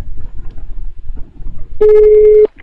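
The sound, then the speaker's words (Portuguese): A single steady ringback tone from an outgoing phone call, loud and clear for just over half a second, after a stretch of quiet low background rumble. “Vamos ligar de novo.”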